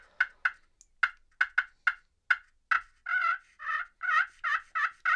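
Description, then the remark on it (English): A friction pot call sounds a string of turkey yelps, first short sharp clucky notes, then longer raspy yelps in a steady rhythm, loud with no talking. “Like if I was a gobbler, I'd be answering.”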